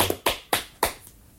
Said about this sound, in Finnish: Mutta kaikille kilpailijoille vielä isot aplodit. Jee.